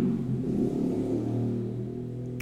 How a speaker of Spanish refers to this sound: Otra motopedorra.